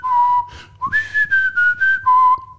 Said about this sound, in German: Aber ich finde das schön aufgenommen und mir tut das aber wohl in den Ohren, wenn ich das Pfeifen höre.